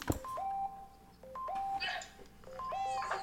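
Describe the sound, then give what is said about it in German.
A rapid string of short two-tone electronic chimes, many incoming message notifications arriving during a Fortnite game session, overlapping and repeating several times over a busy background with faint game-like noise. “jetzt, jetzt kommen hier ganz viele Nachrichten.”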